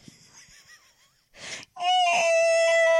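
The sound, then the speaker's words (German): A person screams loudly and continuously for over a second in a building's stairwell, a sharp sustained cry preceded by faint wheezing breaths and a sudden rasping gasp. “Müssen Sie hier durch den ganzen Hausflur so schreien?”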